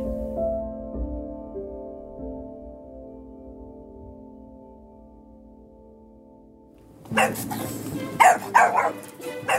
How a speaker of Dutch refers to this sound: Het kleine beest blaft zijn stembanden er bijna uit.